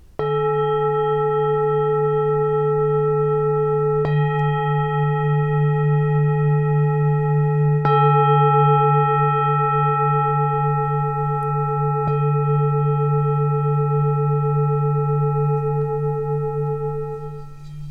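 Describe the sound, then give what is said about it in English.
A singing bowl struck with a traditional striker about five times at steady four-second intervals, each strike blooming into a loud, sustained, shimmering hum with a gentle wavering pulse, ringing alone. “So that was with one of the bigger strikers and then the more traditional that you might hear is this one.”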